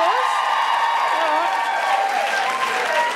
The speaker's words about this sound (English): Uh, just to begin with, can I just get a, a, round of applause from all the people that are single?